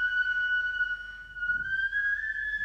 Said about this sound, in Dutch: En dat zou ook zeker de manier zijn waarop die fluit bespeeld wordt, zoals je hem nu hoort.